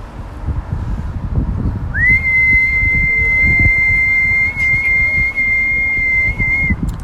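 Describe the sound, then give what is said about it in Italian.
A person whistles one long, steady note that starts after a couple of seconds and holds for nearly five, loud over a low rumbling background. “Lei ha fatto una nota più, più bassa della mia, eh?”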